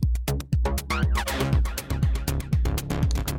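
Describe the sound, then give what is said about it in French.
A sustained synthesizer pad swells under a loud electronic beat, with punchy kick drums landing about twice per second and crisp hi-hats ticking steadily throughout; no one speaks. “Donc ils arrivent avec un petit pad, là, le Chaos Physics.”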